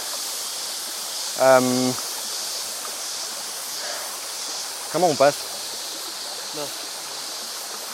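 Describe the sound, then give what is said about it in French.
A large, powerful tropical river in humid weather rushes steadily throughout, a constant broad wash of flowing water, while a voice speaks briefly over it in a couple of short bursts. “Eh ben, euh, bah, la rivière elle est là.”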